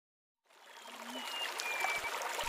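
A river flows steadily after a brief silence, a broad, continuous rushing and gurgling of water, with a few faint chirps or whistles over it.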